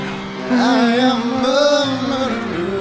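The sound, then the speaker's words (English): A large concert crowd erupts into loud, sustained screaming and cheering, high shrieks piling over one another for a few seconds, half a bar into a song's piano intro, which plays faintly underneath. “And I mean, listen to the crowd. I'm a thief. The- you're you're a half bar into the intro piano, and they they're out of their minds.”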